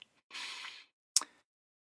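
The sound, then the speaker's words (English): An airy slurp of coffee from a cup lasting about half a second, followed by a short, sharp clink or plop, as if the cup is set down, then silence. “okay let me get a sip of uh, coffee real quick 47 years old, still drink way too much coffee.”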